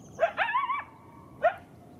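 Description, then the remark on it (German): A coyote gives high, yelping barks that rise into a brief wavering howl, a high bark-howl known as a yip, followed after a pause by one more sharp yip, with no voices present. “Dieses hohe Bellheulen nennen die Menschen dort ein Jip.”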